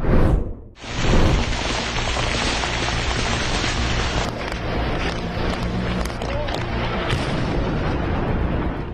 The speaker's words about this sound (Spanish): Así es como Fuerzas Armadas de Ucrania intentan derribar a los drones rusos, los cuales día y noche realizan ataques a la población civil en Kiev, la capital ucraniana.